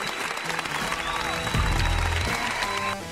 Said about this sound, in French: Euh, j'ai besoin de t'applaudir pour, pour, pour ça.